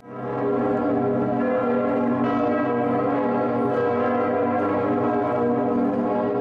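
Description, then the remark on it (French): A large bronze church bell rings continuously, its rich, sustained tone layered with overlapping strikes that keep the resonance full and loud throughout, with no voices present. “Bon, alors les cloches, euh, donc, à qui plus de 90% sont en bronze.”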